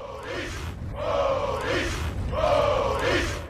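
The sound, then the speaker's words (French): Sailors hauling on a rope, letting out loud, strained exhalations together in a steady rhythm, three heaving bursts roughly a second apart over a noisy, rumbling background. “On retrouve des sons similaires dans d'autres activités, chez les marins qui tirent la corde en expirant bruyamment,”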